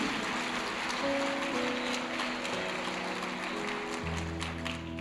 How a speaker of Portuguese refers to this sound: Você pode dar um aplauso ao nome do Senhor.